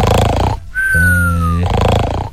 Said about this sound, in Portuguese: É, é, é, ronca, meu filho, ronca, vai. Deixa ele roncar, tá num ronco. tá roncando o bichinho.